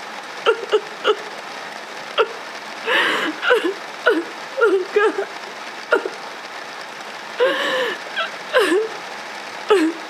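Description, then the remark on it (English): Heavy rain pours down in a steady, dense hiss, punctuated by sharp drips and brief whimpering, squeaky cries that come and go over the constant downpour. “It's raining really hard.”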